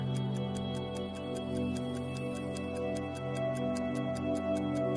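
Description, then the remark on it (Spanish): Clocks tick in a steady, even rhythm of crisp clicks, roughly three per second, over a sustained low tonal drone that continues throughout. “En cada esquina de ese muro vas a ver unos relojes. Esos relojes te van a empezar a retar.”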